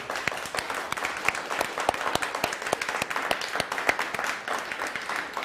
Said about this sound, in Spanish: Bueno, pues un fuerte aplauso a todas las naciones. Vamos, vamos, vamos, fuerte, fuerte, fuerte.